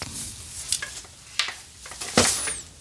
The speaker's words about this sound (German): Jetzt seid ihr mal live dabei, wie der Bob seinen Schlüssel sucht.